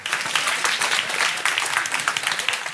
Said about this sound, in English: Clap. It's good to clap.